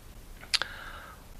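Two quick, crisp mouse clicks in close succession as someone clicks through a presentation, sharp, against a faint hum with no one speaking.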